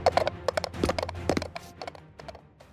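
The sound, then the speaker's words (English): Brisk clip-clop of the small hooves of a mechanical pygmy goat trotting on a hard surface, fairly loud, with a quick, uneven rhythm of many sharp taps. No one speaks. “Strange donkey you got there. They're a mechanical pygmy go.”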